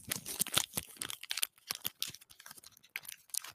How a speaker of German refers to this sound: Warte mal, ich knusper, äh, kn knister ein bisschen mit dem, mit dem Papierchen.